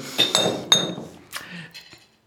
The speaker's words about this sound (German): Stößchen. Stößchen